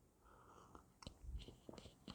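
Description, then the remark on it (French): Quiet mouth sounds of someone taking a small sip of a drink, with soft slurping clicks and a low gulp as it is swallowed. No one speaks. “Alors excuse-moi, je bois juste une petite gorgée de parce que j'ai mal à la gorge.”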